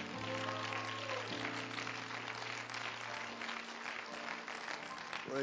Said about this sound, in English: Once again, would you clap your hands to the Lord?